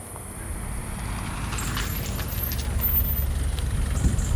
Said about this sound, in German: Plötzlich taucht ein Auto neben uns auf. Es parkt.